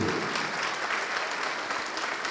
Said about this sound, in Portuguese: E vamos aplaudir muito ao nome do Senhor Jesus, porque Ele não despreza ninguém, Ele não rejeita ninguém.